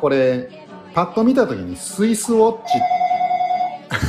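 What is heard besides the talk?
telephone ringing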